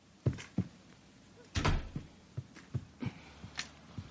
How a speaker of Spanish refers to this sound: Skyler se levanta y cierra la puerta.